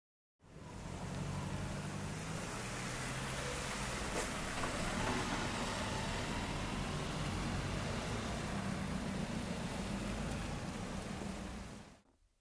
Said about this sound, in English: It's raining, and that's a typical day in London. I'm walking into Soho